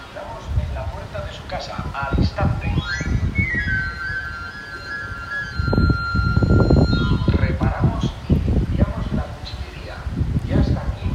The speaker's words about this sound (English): Uh, and there is the sound, which I'm very used to hearing in Madrid actually, of the afilador, the knife sharpener. Uh, that sound of the kind of pipes you can hear, or I don't know, like tin whistle flute, whatever you want to call it